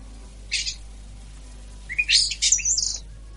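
Starlings chirp in a short burst, then a busier run of squeaky, whistling calls follows after a pause. The bird sounds are clear, with no voices present.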